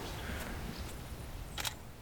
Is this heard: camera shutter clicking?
yes